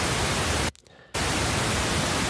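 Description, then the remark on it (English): Steady pink noise hisses across the whole spectrum. It cuts out abruptly to near silence for under half a second when the same signal is added with opposite polarity and cancels out, then resumes at the same level. “So that's just pink noise.”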